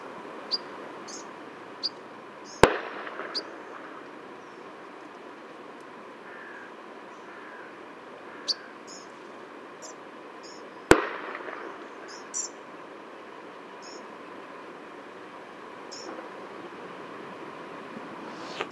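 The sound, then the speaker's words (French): Two hunting gunshots crack out several seconds apart in the morning, during wood pigeon hunting, each trailing off in a rolling echo, over a quiet outdoor background of scattered bird chirps. “Je crois malheureusement que ce matin, les pigeons ramiers payent un lourd tribut à la chasse.”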